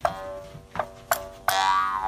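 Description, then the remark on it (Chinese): A sample-made mouth harp is plucked four times in an uneven rhythm, each twang ringing into a buzzy, sustained drone whose overtones wobble and sweep; the last note holds longest. No one speaks. “这是我们打样的口簧琴，要这样用。”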